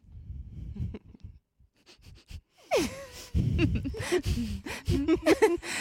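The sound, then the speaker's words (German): Heavy, labored breaths drawn through the nose, a series of audible sniffing inhales and wheezy exhales, picked up by a microphone that is fairly far away, growing louder and more frequent in the second half. “du machst diese Pause, weil du atmen musst zwischendrin, weil du so schwer Luft kriegst”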